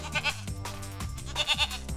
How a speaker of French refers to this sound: Emma a raison depuis le début, car Dolly est en fait une brebis et non une chèvre.